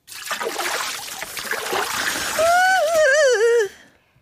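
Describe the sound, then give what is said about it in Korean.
Cold water splashes and pours for a couple of seconds as someone washes their hair with it, then the person lets out a loud, wavering shriek at the freezing water that cuts off abruptly. “진저리가 날 정도로 차가운 물로 머리를 감느라고 비명을 질러댄 거죠.”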